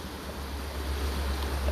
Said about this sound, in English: And be, being next to the stream, which I haven't really been able to spend a lot of time with, but since I've uh, been in this area, I've managed to s- spend a lot more time with water.